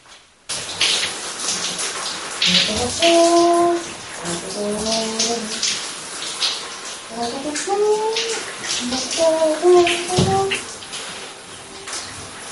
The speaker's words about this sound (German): So, also das war die Dusche.